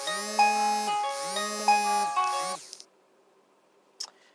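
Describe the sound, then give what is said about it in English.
An electronic alarm chime plays a repeating pattern of bright, harmonic tones in three phrases, fairly loud, then stops, followed by a brief faint click. “And I apologize for that little interruption there. That was the alarm as this uh, running out of space here.”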